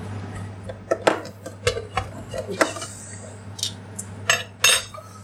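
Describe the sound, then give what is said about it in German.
Dishes and cutlery clatter in a quick, irregular series of sharp clinks and knocks as a wok lid is fetched from the dishwasher, with a steady low hum underneath and no talking. “Ah ja, der Deckel ist in der Spülmaschine.”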